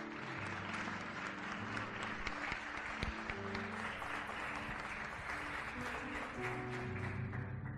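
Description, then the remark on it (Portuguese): An audience at a church service applauds God steadily for several seconds, a dense, sustained wash of clapping from many hands with a low musical hum underneath and no talking. “Pode aplaudir forte o nosso Pai que ele merece.”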